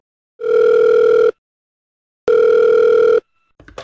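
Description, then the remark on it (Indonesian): Two long, steady electronic telephone tones sound while a call to another person is placed, each lasting about a second with a pause between, loud, followed by a brief clatter at the end. “Eh, telepon orang lain aja yuk”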